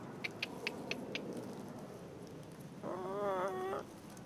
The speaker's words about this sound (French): Jean vit également en compagnie de sa poule. Alors, ma belle Ponctuelle, prête à recevoir les soins du jour.